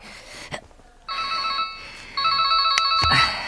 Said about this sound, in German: Schon kurz darauf klingelte Peters Handy.